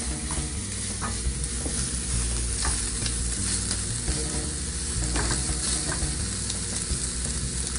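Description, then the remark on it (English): A steady, continuous sizzle of an egg scramble frying and browning quickly in a pan, with scattered faint clicks and scrapes from stirring, holding an even loudness throughout with no one talking. “So you can see that's browning really quick.”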